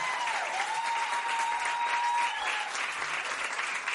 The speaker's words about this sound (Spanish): así que darle un aplauso fuertísimo al sonido ….